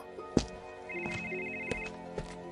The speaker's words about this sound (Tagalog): napansin kong hindi pala alarm ang tunog ng cellphone ko. Isa itong tawag.